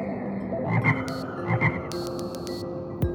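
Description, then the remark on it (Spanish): A toad croaks in two short double-pulsed bursts, low and throaty, over a steady outdoor hum with some higher chirping and a soft thump near the end. “Es un sapo. Los sapos son amigables.”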